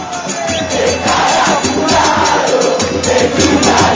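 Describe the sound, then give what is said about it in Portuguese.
A large stadium crowd of football fans chants loudly in unison, a dense, sustained roar of many voices with rhythmic swells, filling the whole stretch without pause. “É, vamos ouvir a torcida e depois a música correspondente,”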